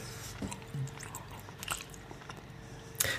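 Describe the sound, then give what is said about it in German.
Soft, moist chewing of a juicy marzipan cookie from a friend's girlfriend, with a few muffled bites and wet mouth sounds over a low steady hum, ending in a sharper crunchy click. “wenn ich den Keks von deiner Freundin hier im Mund habe”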